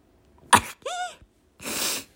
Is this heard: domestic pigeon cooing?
no